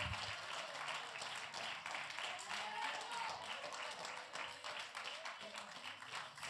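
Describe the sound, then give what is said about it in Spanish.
An audience applauds the Lord steadily, a dense, sustained wash of many hands clapping at once, bright and even throughout without pauses. “El aplauso al Señor.”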